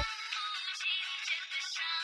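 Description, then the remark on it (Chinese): A mobile phone ringtone, a classical tune, plays a bright, busy melody of high tones that pulse in short phrases at a steady, moderate volume, with no one speaking over it. “突然，他的电话响起。”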